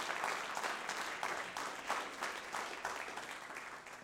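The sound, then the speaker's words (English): A church audience applauds steadily as a hand clap of praise to the Lord, many hands clapping at once in a dense, sustained burst that holds for several seconds before thinning slightly toward the end. “Would you give the Lord a hand clap of praise one more time?”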